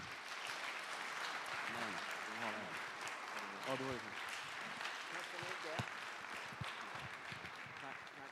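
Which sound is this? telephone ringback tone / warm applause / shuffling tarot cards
warm applause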